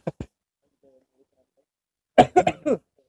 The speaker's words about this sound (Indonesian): lu ngeginiin batuknya